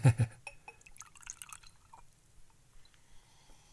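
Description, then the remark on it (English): Whiskey trickles from a small sample bottle into a glass as a half pour, opening with a couple of sharp glass clinks, then a brief splashy pour that tapers into faint drips. “I'm also sipping a little water, but I'm going to pour.”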